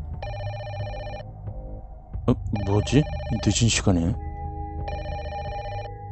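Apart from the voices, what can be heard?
landline telephone bell ringing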